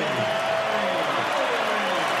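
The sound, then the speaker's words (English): A large arena crowd at a Philadelphia Sixers game cheers and roars as North Philly native Kyle Lowry checks in for his Sixers debut, in a dense, steady wash of noise that stays loud from start to finish, with no individual voices standing out. “And obviously the crowd, you know, rising in the moment.”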